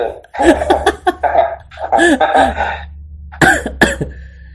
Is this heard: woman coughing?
yes